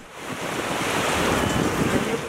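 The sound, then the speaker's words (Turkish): Steady crashing surf at a crowded beach in İzmir or Aydın on Turkey's Aegean coast during a heat wave: a broad continuous wash of breaking waves with some wind noise, loud, with no voices standing out above the water. “5 ila 8 derece arasında artan sıcaklığa dayanamayanlar denize koşuyor. Burası İzmir, burası Aydın.”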